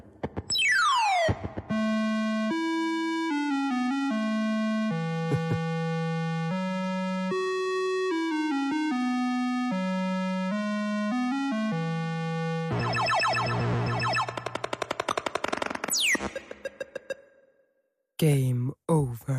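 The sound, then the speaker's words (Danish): Retro video game sound effects: bright, buzzy electronic tones hop between pitches in a steady stream, with a falling sweep at the start, a harsh noisy stretch, a rising zap and a few final blips. “Men øh, jeg har fundet øh, et lille klip på nettet, hvor man kan høre lydsiden fra det her spil.”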